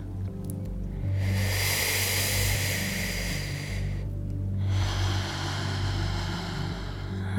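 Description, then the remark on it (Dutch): Two long, airy breaths in a breathing exercise: an inhale drawn through loosely pursed lips as if through an imaginary straw, hissing like wind, then another breathy rush, over a steady low hum with no talking. “En als je het geluid van de wind hoort op je inademing, dat is genoeg.”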